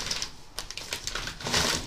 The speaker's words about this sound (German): es raschelt.